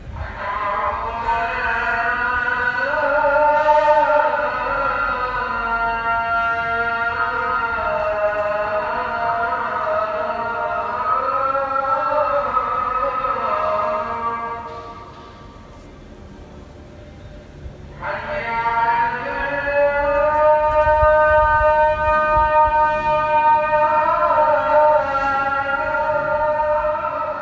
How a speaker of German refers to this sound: Und ähm, natürlich gibt es auch die Rufe äh, der Muezzins äh, in den entsprechenden Städten. Und ja, da können wir mal, können wir mal reinhören jetzt, ob man das albanische Element daran erkennt.